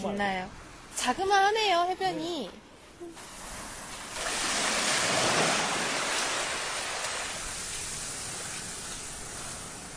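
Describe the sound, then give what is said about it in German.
A voice speaks briefly, then waves break on the fine sandy shore of Sachon beach, a broad hissing wash that swells loudly, rolls in and slowly fades into a steady murmur of surf. “Man hört die Wellen ans Ufer schlagen.”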